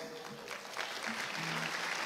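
A crowd at a church service applauds steadily to welcome a returning guest, a dense, continuous wash of clapping at even loudness throughout, with faint tonal notes underneath, likely from instruments.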